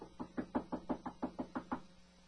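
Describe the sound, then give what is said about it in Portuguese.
A rapid series of about ten light knocks on a bedroom door in a silent house, evenly spaced and fairly soft, then quiet. No voices are heard. “De repente, uma batida leve foi ouvida à porta do seu quarto.”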